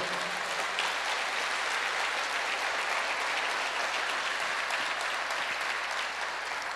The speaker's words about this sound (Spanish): Se merece otro fuerte aplauso al Señor.